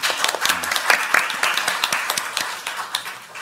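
An audience at a political discussion forum applauds a speaker after a presentation, with many overlapping hand claps forming a dense, crackling wash punctuated by sharper individual claps. The clapping stays fairly steady, easing slightly toward the end.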